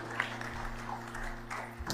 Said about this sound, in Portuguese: Glória a Deus. Dá uma salva de palmas aí para Jesus.